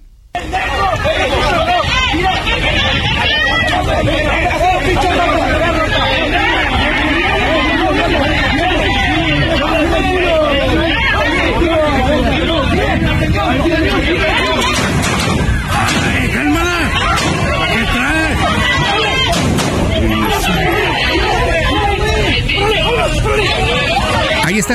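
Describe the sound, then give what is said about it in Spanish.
A dense, chaotic crowd of local residents shouts and yells continuously while confronting army soldiers in Tamaulipas, voices overlapping in a loud hubbub, with scattered sharp bangs of detonations and crashing impacts breaking through the commotion. “Vamos a escuchar, escuche usted el audio de los videos que han empezado a circular del momento mismo del enfrentamiento y de las detonaciones.”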